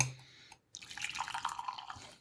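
Coffee pours steadily into a cup in an apartment just outside Copenhagen, a continuous trickling splash lasting a little over a second after a brief pause, with no talking.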